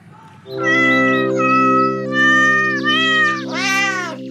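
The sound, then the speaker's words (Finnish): A cat meows loudly in a long, drawn-out series of wavering yowls that rise and fall in pitch over a steady low hum, with no talking. “No niin, me otettiin pieni kissan maukumisen säästämä paussi ja kierreltiin tätä hallia.”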